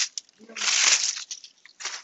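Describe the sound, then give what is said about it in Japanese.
Packing material made of Yoshino cypress planer shavings crinkles and crackles in dry, rustling bursts as it is added as cushioning around goods in a parcel: a short crunch, then a long loud stretch of dense crackling that fades and returns near the end. “でその際に、今ね、バリバリバリバリって音がしてると思うんですけれども、作業音をお許しください。”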